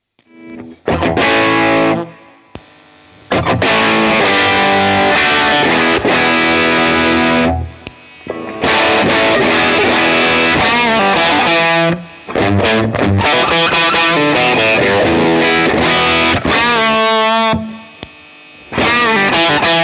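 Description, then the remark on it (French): An electric guitar played through a Nordvang '83 Drive, a Danish boutique double overdrive pedal with side A routed into side B, into a tube amp; thick and saturated, in a series of chords and riffs broken by brief pauses, with a faint background hum and no one talking. “test d’une extraordinaire double overdrive boutique danoise”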